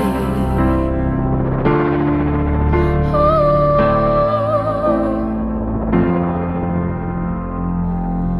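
A slow pop song plays steadily on Top Latino Radio, with ringing piano-like chords changing every second or so and a high, wavering sung note drifting over them midway through.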